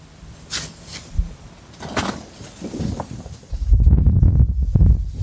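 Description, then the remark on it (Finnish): A roof creaks and knocks a few times in the wind, with scattered irregular groans early on, then a low, steady gusting rumble building up near the end. No one speaks. “kuulee ehkä tässä tuo katto vähän krutiseet, Nyt ensimmäistä kertaa vähän enemmän tuulta.”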